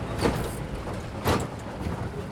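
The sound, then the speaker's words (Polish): A steady low engine rumble from inside a well-worn car driving on an unpaved road in a safari park, broken by two sharp rattling jolts as it sways side to side over potholes. “Wysłużony, ale wciąż dzielny samochód chwieje się na boki, pokonując kolejne dziury.”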